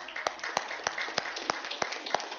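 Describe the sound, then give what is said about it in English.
An audience claps together, sharp hand claps landing in a steady rhythm about three per second over a dense wash of scattered clapping from the crowd. “And if you're a follower of Jesus, we can clap for that.”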